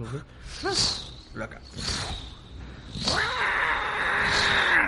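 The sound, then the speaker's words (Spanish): A person imitates a vulture's cry with harsh, wavering screeches and hissy rasps, several bursts in a row, with brief vocal sounds between them. “Yo salen los buitres, haz ruido de buitre porque yo soy pésimo.”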